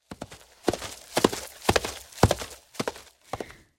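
Horse hooves clip-clop at an unhurried walking pace, each strike a sharp knock in a steady uneven rhythm of about six or seven beats, heard alone without voices.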